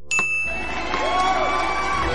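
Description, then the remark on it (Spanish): A small hand bell gives one bright, ringing chime as a cue to someone told to relax, lingering and slowly fading, with a faint crowd murmur and cheering swelling softly underneath. “Al oír la campanilla, serás una actriz recogiendo el premio a toda tu carrera.”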